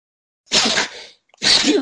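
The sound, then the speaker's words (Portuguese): A loud sneeze, brought on by the cold, bursts out, followed after a short pause by a second sharp sneeze-like burst, in cold weather of about minus three degrees. No one speaks. “Um espirro aqui do frio.”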